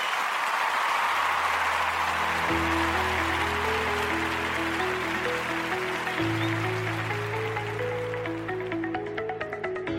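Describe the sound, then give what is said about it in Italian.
A short burst of applause sound effect: dense, steady clapping filling the whole stretch, with a simple stepping melody and a low bass line playing underneath as a jingle begins. “direi con questo uh, vado in eh, applausini, sigla e poi in conclusione di puntata.”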